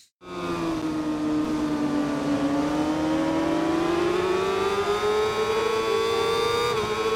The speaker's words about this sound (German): Ich glaube MotoGP Onboard-Aufnahme, ne? Live aus dem Fernsehen. Könnte man meinen. Ja, es ist tatsächlich äh, Ride 5.